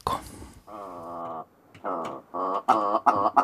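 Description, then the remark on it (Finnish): A willow ptarmigan calls: a loud series of harsh, croaking bursts, a long rattling note followed by several quicker stuttering calls. “nyt kanavalla soi riekko.”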